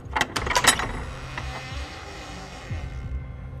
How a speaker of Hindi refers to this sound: भीमा ने उस कमरे का दरवाजा खोल दिया